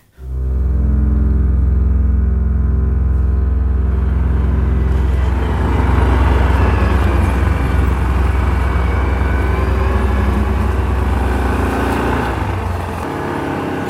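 An all-terrain quad bike engine drones loudly with a low, steady hum, then turns rougher and throatier as it picks up and drives on, used to ride the steep slopes of a privately owned woodland, running continuously with no voices.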